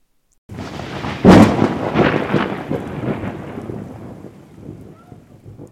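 A thunderstorm with a sharp, loud thunder crack followed by a long rolling rumble that slowly fades, with a steady hiss of rain underneath throughout.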